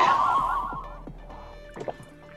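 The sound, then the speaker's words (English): A few quiet gulps and wet swallowing sounds as people knock back liqueur shots of Bailey's, Jaeger and Parlinka after toasting cheers, with faint clicks and a soft liquid gurgle near the end, no talking. “Now drink your drink.”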